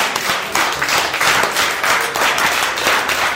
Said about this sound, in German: Also ehrlich, so viel Jubel hätte ich gar nicht erwartet